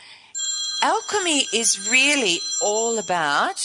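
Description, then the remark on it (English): A telephone rings with a steady electronic tone throughout, moderately loud beneath a person talking continuously over it. “Sorry about the phone ringing. I forgot to turn that off.”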